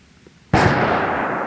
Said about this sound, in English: We're at a gun range.